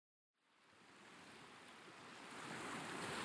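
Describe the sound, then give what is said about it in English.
Waves wash onto the shore in a steady, broad rushing roar that swells louder over a few seconds, with no voices, just continuous surf noise. “Cytherea wanders along the shore.”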